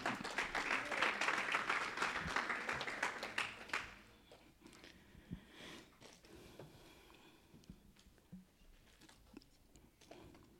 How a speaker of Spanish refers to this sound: De un aplauso fuerte.